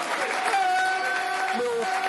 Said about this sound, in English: team, disconsolate leaving the pitch, but getting well applauded, and rightly so. That was a performance. That was a Millwall performance. Well done.